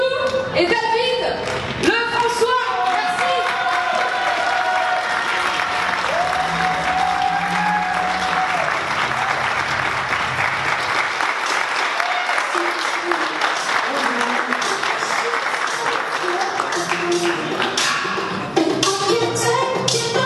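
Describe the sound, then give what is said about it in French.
A large audience breaks into sustained, loud applause for about twenty seconds, with some cheering and voices mixed into the steady roar of clapping, welcoming a guest speaker who runs a YouTube channel. “Je vous demande d'accueillir sous votre tonnerre d'applaudissements”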